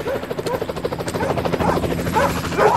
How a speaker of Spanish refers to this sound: Gritaba fuerte para espantar al supuesto puma, pero lo que hizo que se pusieran a ladrar había sido el helicóptero que ahora me estaba buscando en el bosque.